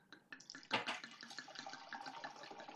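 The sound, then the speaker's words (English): A bottle of Quilt Cabernet wine is opened with a sharp pop, then wine glugs and pours steadily for a couple of seconds, clear, with no talking. “Uh, today I'm going to open the Quilt Cabernet.”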